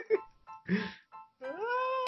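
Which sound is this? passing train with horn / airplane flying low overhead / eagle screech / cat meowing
cat meowing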